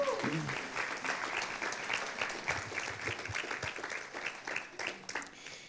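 Steady applause from an audience for a woman praised for doing a great job, many hands clapping at once in a dense, continuous patter that holds at a fairly even loudness for several seconds.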